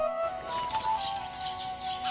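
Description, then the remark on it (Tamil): Soft, scattered chirps from many birds flying past flutter over a steady, humming drone, with light tweets repeating throughout and no voices present. “நிறைய பறவைகள் பறந்து போகுது நிறைய பறவைகள் தன்னோட குடும்பத்தோடு பறந்து போகுது தன்னோட அப்பா அம்மாவோட பறந்து போகுது”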